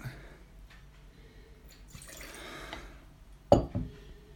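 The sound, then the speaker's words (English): Wine is poured into a glass for a couple of seconds with a soft gurgling splash, followed by a sharp clink of glass, quiet with no talking. “I want to pour another. Just for the for the for science. I want to pour a”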